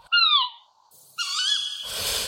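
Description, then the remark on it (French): Two owl calls in turn: first a tawny owl's loud, strained hoot that slides downward, then after a short pause a scops owl's steadier, slightly wavering call that fades into a breathy hiss. “Pour différencier le cri de la chouette hulotte qui est et le cri de hibou petit duc qui est.”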